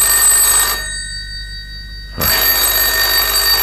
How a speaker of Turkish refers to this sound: Ben bakarım telefona.